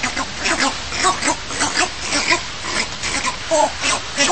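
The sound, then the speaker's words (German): A trainer's voice repeats a short, guttural two-beat 'kom-kom' call, used to communicate with northern bald ibises in training, over and over in a steady rhythm, fairly loud, with a faint noisy outdoor background. “Man kommuniziert mit dem Vogel über einen Ruf, den der Waldrapp lernt. Das ist einfach praktischerweise dieses Kom-Kom.”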